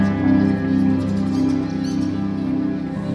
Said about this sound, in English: every bird can contribute to the soundscape. They're flying around the room, sometimes in flocks, sometimes alone